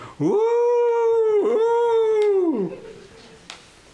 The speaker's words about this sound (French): Soudain se fut un hurlement dans la montagne.